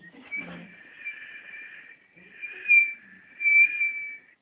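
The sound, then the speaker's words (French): A recording presented by NASA as the sound of planet Neptune: a high, eerie whistling tone that wavers slightly and swells louder twice, with no voices. “Et si vous voulez aller plus loin, ça c'est déjà une expérience de la NASA, la NASA a enregistré le bruit de chaque étoile. C'est-à-dire il y a Neptune, vous entendez”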